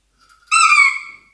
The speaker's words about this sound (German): Jetzt muss ich einmal hupen